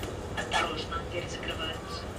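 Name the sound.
tram riding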